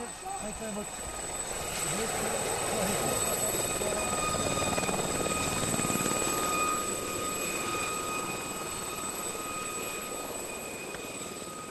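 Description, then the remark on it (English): A helicopter's rotor blades thump in a steady, continuous drone alongside a high engine whine, fairly loud, swelling slightly midway and holding throughout, as the helicopter comes in at an awkward landing zone to take an injured man aboard on a stretcher. “The rotor blades reawaken Vietnam memories.”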